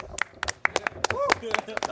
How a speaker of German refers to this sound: Wahnsinn. Der Applaus hier es artet aus.